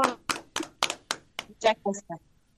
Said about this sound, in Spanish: Chicos, para ustedes este abrazo enorme, este aplauso